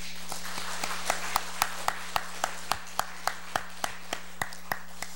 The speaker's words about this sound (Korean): 하나님 앞에 감사 박수 한번 드릴까요?